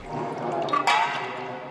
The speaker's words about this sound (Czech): Veškerá voda z puklin je svedena sem. V tuto chvíli z podzemní laboratoře odtéká zhruba 2,5 litru za sekundu. Postupně ale vody ubývá.